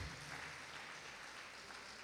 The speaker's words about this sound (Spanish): Dele un aplauso al Señor, por favor, en esta noche. Dele fuerte ese aplauso al Señor en esta noche.